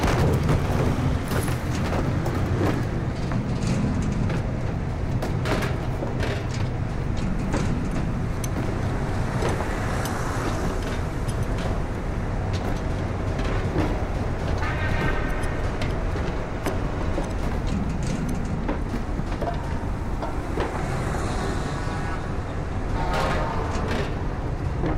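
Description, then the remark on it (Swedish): A truck drives off, rumbling steadily with a loud, continuous low engine drone, punctuated by knocks and rattles as people crowded into its cargo bed jostle and someone falls over. “När lastbilen rullar iväg faller någon omkull.”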